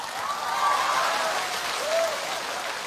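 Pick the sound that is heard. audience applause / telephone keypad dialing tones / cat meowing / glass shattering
audience applause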